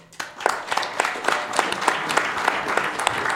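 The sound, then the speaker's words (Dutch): An audience applauds steadily for a guest introduced as a healthcare entrepreneur, many hands clapping in a dense, crackling wash with a few sharper individual claps standing out, holding at a fairly even level throughout. “Eh, ik wil graag een heel erg hartelijk applaus voor zorgondernemer”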